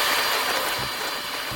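A kitchen blender roars loudly and steadily, its harsh whirring motor noise filling the whole moment without letting up, close by and with no voices.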